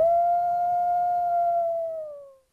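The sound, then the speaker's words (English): A single wolf howl holds one long, steady tone for about two seconds, then bends slightly downward and fades out, clear and unaccompanied apart from faint low rumble. “Minnesota wolves deserve to be protected and admired. Learn more at howlingforwolves.org. Let's live and let howl.”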